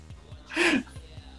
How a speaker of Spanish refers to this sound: Perdón. Se vio mucho el bostezo.